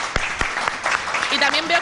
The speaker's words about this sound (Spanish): A la gente que está aquí viéndonos, Un aplauso, por favor. Sí, que se note, que se note